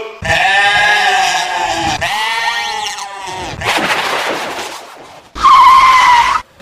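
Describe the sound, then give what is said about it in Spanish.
A loud, drawn-out tyre squeal with wavering pitch as a vehicle brakes automatically, breaking into gritty skidding noise, then one more sharp screech. No talking. “frenó automáticamente.”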